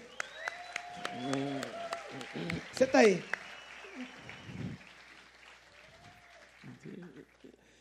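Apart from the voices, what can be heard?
audience applause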